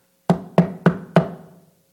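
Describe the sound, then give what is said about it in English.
Four firm, evenly spaced knocks on a wooden door, each with a short resonant ring that fades before the next. Clear, with no voices. “Behold, I stand at the door and knock.”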